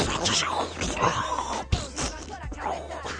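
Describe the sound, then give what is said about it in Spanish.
A voice makes strained, breathy groaning and whooshing noises by mouth, imitating fight sound effects, with a sharp thump on a table partway through. Fairly loud, with no clear words. “Es ver que no tenemos efectos especiales, oye, con la mesa, así que nos hacemos nosotros con la boca y tal.”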